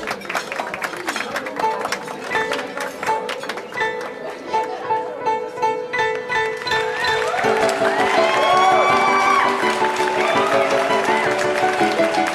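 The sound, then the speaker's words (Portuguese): A crowd applauds and cheers steadily over music for the dancers of a cancan show, the clapping dense and continuous, swelling louder partway through as excited voices and whoops rise above it. “Aplausa para nossas belas garotas.”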